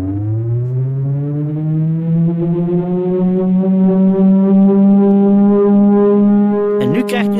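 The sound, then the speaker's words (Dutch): An all-clear warning siren, signalling that nothing is wrong: a loud, steady tone rises briefly at the start and then holds one unbroken pitch for several seconds, ending with a short burst of noise. “sirene die betekent niks aan de hand, niks aan de hand, niks aan de hand.”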